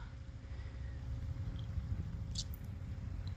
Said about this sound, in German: Ich sitze hier gerade in Haffkrug am Strand und ja, es ist einfach wunder wunderschön. Vielleicht hört ihr das Meer auch.